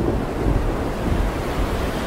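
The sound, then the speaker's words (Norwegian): Stormy waves crash and churn against a boat in a steady, rumbling roar, with gusting wind blowing throughout. No one speaks. “Bølgene slo innover båten, og den holdt på å bli fylt med vann.”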